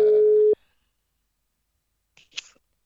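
A loud, steady telephone ringing tone plays for about half a second as a call is placed to a person, then cuts off abruptly, followed by silence and then a brief, faint breathy rustle.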